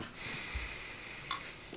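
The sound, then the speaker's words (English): A drawn-out nasal sniff, someone inhaling deeply through the nose smelling a glass of still, uncarbonated mead, with a faint airy hiss and a couple of soft clinks and rustles. No one speaks. “That right there was the sniff test”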